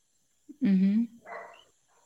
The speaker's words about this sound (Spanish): Disculpa el perro, el perro de mi tía.